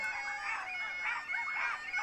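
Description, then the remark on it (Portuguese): People imitate chickens with a steady stream of squawky, clucking calls that overlap and rise and fall for about two seconds, moderately loud. “São pessoas a imitar galinhas.”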